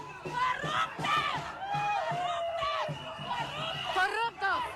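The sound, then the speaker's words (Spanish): A loud crowd in Antigua Guatemala shouts angry insults, calling a politician and his family corrupt, many overlapping voices yelling in ragged, rising and falling cries that continue steadily for several seconds, with no pause in the clamor. “el fin de semana le gritaban corrupto a él y a su familia en la antigua Guatemala.”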